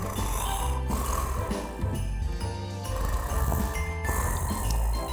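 Loud, rumbling snores repeat several times over a busy musical background, steady, with short dips between breaths.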